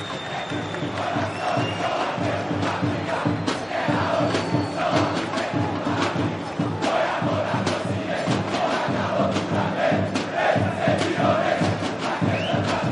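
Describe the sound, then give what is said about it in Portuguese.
A packed crowd at the Mineirão stadium chants and cheers as Atlético wins the Campeonato Mineiro, a dense roar of many voices with rhythmic swells and sharp shouts, loud and steady throughout with no single voice standing out. “E aí foi um dia muito maravilhoso, porque, né, ganhando Atlético com o Mineirão lotado, né, não é para qualquer um.”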